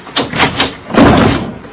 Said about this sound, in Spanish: Empuje la puerta.